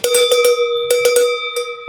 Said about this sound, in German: Ähm, läute ich jetzt die Glocke